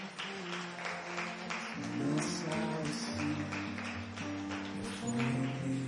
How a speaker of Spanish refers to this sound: Ahora, regálele un aplauso fuerte al Creador.